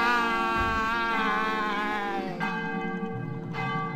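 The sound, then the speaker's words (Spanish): Church bells ring loudly and continuously, their rich overlapping tones sustaining and blending as new strikes land every second or so, with no voices present. “Cuando las campanas sonaban, todos los habitantes se ponían aterrorizados”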